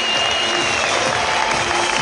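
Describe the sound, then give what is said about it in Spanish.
An audience applauds the launch of a new tool from Excel, a dense, steady patter of many hands clapping together that holds at an even, fairly loud level for about two seconds with no voices on top. “Un fuerte aplauso por este lanzamiento y esta nueva herramienta que también nos brinda Excel.”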